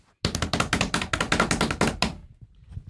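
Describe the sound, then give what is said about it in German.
A quick drumroll tapped out by hand on a hard surface: a fast, steady run of about a dozen close, loud knocks lasting nearly two seconds, then trailing off into a faint rustle. “Trommelwirbel.”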